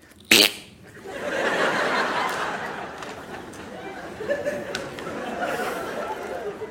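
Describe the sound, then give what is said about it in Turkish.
A sharp, brief burst, then a long, sputtering, buzzy fart noise made with the mouth, imitating a young woman farting, rising and fading over several seconds with faint background chatter. “Kız osurdu abi.”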